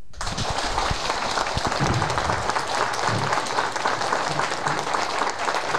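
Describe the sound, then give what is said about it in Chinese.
A large audience breaks into sustained, enthusiastic applause welcoming a speaker, a Diamond-level Amway business manager, onto the stage: a dense and steady wash of clapping that stays loud and even for about six seconds, with no voices heard over it. “请大家帮助我用最热烈的掌声欢迎钻石级营业经理杜国渊先生上台分享。”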